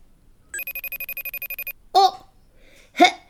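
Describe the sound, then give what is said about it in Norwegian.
A telephone rings once in a rapid, pulsing electronic trill lasting about a second, clear, followed by two short bursts of voices speaking. “Der ringer jo dukkevennene mine”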